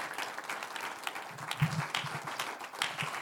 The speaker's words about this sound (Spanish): Vamos a dar un aplauso al Señor por su gracia y su amor.